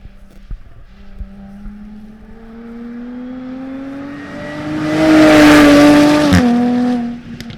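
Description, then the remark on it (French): A Jaguar F-Type sports car with a manual gearbox accelerates hard, its throaty engine drone climbing steadily in pitch and growing loud, then dropping abruptly as if shifting gear before settling. No one speaks. “C'est la seule F-Type disponible en boîte méca.”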